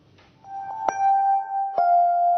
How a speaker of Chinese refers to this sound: 我们接下来整点报时，你稍微等我一下，不要挂电话，别挂。